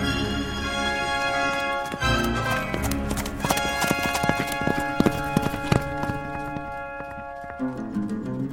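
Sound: horse hooves clip-clopping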